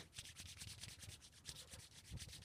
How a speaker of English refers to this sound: I can hear your hands steaming up the mic as you're as you're rubbing them.